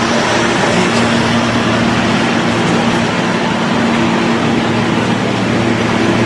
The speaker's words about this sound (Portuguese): Olha a barulheira. Esse é o som. O som do tão esperado asfalto na Avenida da Mandaré.